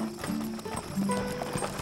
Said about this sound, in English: Through the town gates, the wagon creaks by.